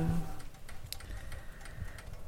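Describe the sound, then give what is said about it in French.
Faint, irregular crackling of a fabric petal being crisped under a hot shaping tool: small dry ticks and pops spaced unevenly over a low background hum, quiet, with no talking. “Des fois, tu entends le petit bruit croustillant.”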